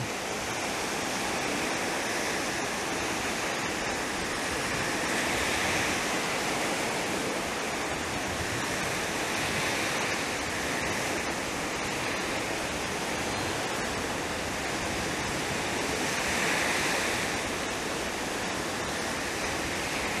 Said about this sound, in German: Die Gedanken kommen und gehen wie eine Welle. Lass sie von der nächsten Welle einfach wegspülen und ins Meer hinaustreiben.